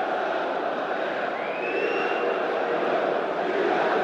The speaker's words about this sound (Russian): Ага, болельщики «Локомотива» сейчас празднуют э, не выход «Спартака», кстати, в финал Кубка России. Тут кричалки они затягивают, которые, в общем, не стоит, я думаю, в радиоэфире и в каком-либо другом эфире воспроизводить